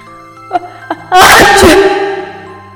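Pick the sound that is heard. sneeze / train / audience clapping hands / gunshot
sneeze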